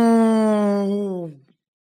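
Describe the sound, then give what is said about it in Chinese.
A person imitates a tiger's roar with one long, drawn-out vocal growl that holds a steady pitch, then slides lower and trails off after about a second and a half. “老虎的叫声在每条走廊、每个房间和整个王宫花园回响，惊醒了所有的人。”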